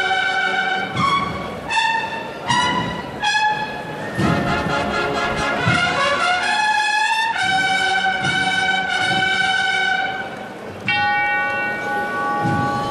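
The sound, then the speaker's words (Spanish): A tubular bell, the bell of the three falls, is struck repeatedly at a moderate, slightly uneven pace. Its bright, metallic tones ring on and overlap from one strike to the next, loud, with no voices. “Eso era la campana de las tres caídas. Campana tubular.”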